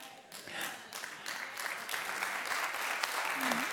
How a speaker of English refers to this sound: You guys clap funny.